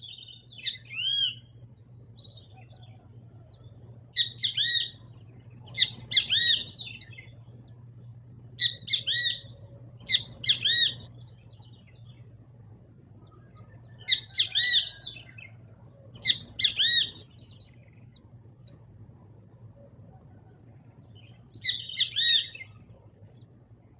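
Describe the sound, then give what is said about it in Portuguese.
A great kiskadee (bem-te-vi), a South American bird, calls over and over, loud and harsh: about eight bright, emphatic phrases in a steady rhythm, with a low constant hum underneath and no talking. “Vocês já devem ter percebido que o bentivi tem esse nome por causa do seu canto, né?”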